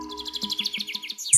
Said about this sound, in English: you can actually hear the birds singing outside of uh, Sissy's van